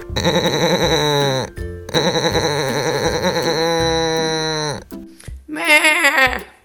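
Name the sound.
male goat bleating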